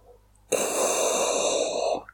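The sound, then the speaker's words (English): A voice imitates heavy, mechanical respirator breathing: a loud, hissing, rasping inhale and exhale held for over a second after a brief quiet start, with no talking. “that was a fantastic Darth Vader impersonation”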